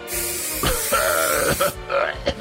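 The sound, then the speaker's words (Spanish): A long, steady hiss of disinfectant being sprayed from a bottle, lasting under two seconds with a few soft bumps, then cutting off into quieter rustling and a couple of light knocks. “es desinfectante, ¿qué estás usando?”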